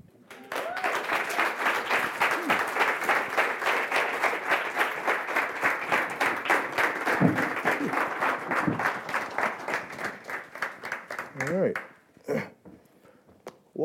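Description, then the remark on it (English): An audience at a book presentation applauds steadily for about eleven seconds for the author Gael Faye, a dense patter of many hands that fades out, followed by a brief voice and a short burst of claps. “So, by way of Rwanda, Burundi, France, give a warm round of applause for Gael Faye.”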